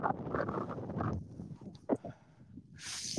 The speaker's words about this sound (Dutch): Het waait hier zo altijd bijna de microfoon van mijn hoofd eh, waait.